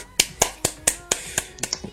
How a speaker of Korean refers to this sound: 박수!